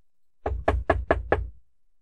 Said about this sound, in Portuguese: A senhorita Monsen bateu na porta.